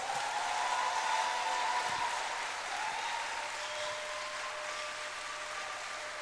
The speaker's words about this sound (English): Wow. Keep clapping. For, for a special reason. Keep clapping. Keep clapping. Now add a shout to it.